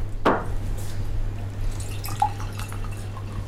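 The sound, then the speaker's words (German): Water going into a drinking glass at the nurses' table in a hospital in Dornach: one sharp glassy clink near the start, then a few faint, scattered drips over a steady low hum. No one speaks. “Am Tisch bei den Pflegefachkräften gibt es erstmal ein Glas Wasser.”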